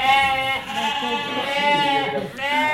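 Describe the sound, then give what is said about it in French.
Dairy ewes bleat loudly, one drawn-out, wavering call after another with barely a pause, as if several sheep are calling over each other, on an organic, grass-based farm at La Croix-Éléan with 110 dairy ewes whose milk is made into cheese. No one speaks. “On a 110 brebis laitières, on est en agriculture biologique et en système herbe.”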